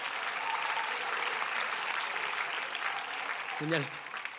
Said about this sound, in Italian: Un applauso a Camoranesi.